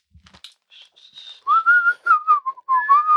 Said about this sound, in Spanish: Entonces, si voy en el carro, voy al sitio donde me voy a presentar o voy a hacer un podcast, a grabar algo, empiezo a silbar.